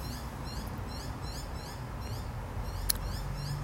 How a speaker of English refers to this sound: God, I love hearing my birds. A little baby up there right now. I'm assuming you can hear him.